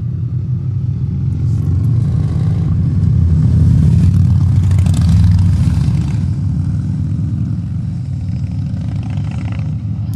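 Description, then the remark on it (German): Cars pass on a street at night in summer, heard through the open windows of a fourth-floor attic bedroom on a Friday at 11:37 pm: a steady, deep traffic rumble that swells louder around the middle as vehicles go by, then settles back to a constant hum. No one speaks. “Und jetzt ist es gerade ganz still, weil gerade kein Auto kommt.”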